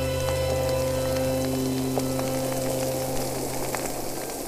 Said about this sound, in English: For this episode, the artist Markus Mäder recorded underwater sounds from the Rhine Canyon next to Versam, where the current moves rocks and sand.